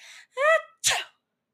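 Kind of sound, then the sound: human body sound, loud sneeze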